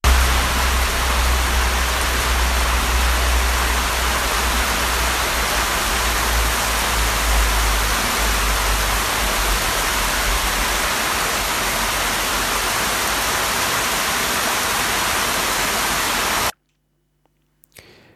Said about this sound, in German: Ja, es hat geschüttet wie in Strömen. Ich glaube, man hört es auch ganz gut auf dieser kurzen Audionotiz, die ich nur schnell vom iPhone aufgezeichnet habe.